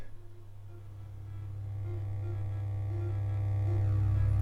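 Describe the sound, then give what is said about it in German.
A steady electrical hum with buzzing low harmonics swells gradually louder, broken by faint recurring pulses as a sensor picks up flickering candlelight, converting the electrical oscillations into a current that is amplified through a mixing desk and amplifier. No one speaks. “ich halte das jetzt mit einem Sensor zusammen und dieser Sensor, der wandelt diese elektrischen Schwingungen in einen Strom um und im Mischpult wird dann dieser Strom verstärkt und über den Verstärker hörbar.”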